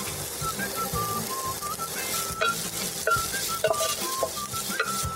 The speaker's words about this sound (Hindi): एक पैन में हम लोग थोड़ा सा ऑलिव ऑयल थोड़ा सा गार्लिक थोड़ा सा ही भूनना है लहसुन को we'll द चॉप्ड अनियंस